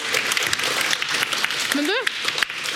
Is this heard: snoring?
no